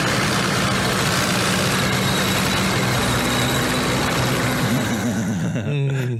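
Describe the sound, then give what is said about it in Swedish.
A heavy VK2 tank engine rumbles loudly and steadily while metal tracks grind and squeak continuously, the engine note wavering and shifting pitch near the end. “Kan vi få höra lite bandaggregat, Fredrik?”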